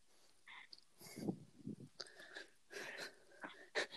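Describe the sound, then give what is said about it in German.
A voice imitates another person's heavy breathing: a series of rough, raspy inhales and exhales, some wheezy and hissing, coming in irregular bursts with no talking. “Du atmest nur gerade.”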